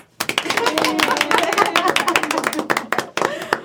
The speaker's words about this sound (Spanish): Aplausos.